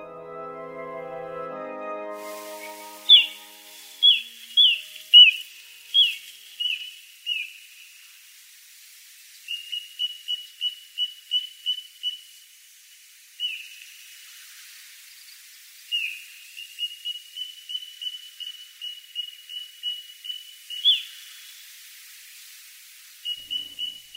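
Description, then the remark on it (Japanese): Little ringed plover calls: short, high whistled notes in quick repeated runs, some stretched into brief trills, after a short chime at the start, with no talking. “千鳥の代表コチドリの鳴き声ですコチドリはシギや千鳥の仲間です”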